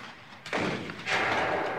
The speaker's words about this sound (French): Les canons installés près des moulins sont désormais orientés vers l'ouest et commencent à faire feu sur Bécon, Agnières et Gennevilliers pour repousser l'ennemi.